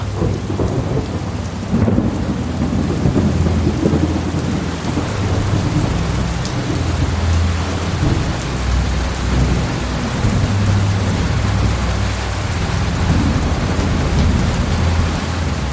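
A summer thunderstorm: a near-tropical downpour of large raindrops pelts dry ground and the veranda roof overhead while deep, rolling thunder rumbles through, loud, with no voices.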